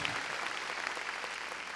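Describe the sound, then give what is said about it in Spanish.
A crowd claps hands steadily in praise to God, a dense wash of overlapping claps forming a continuous, fairly loud texture with no voices standing out. “Démosle palmas fuertes a nuestro Señor, Dios Santo.”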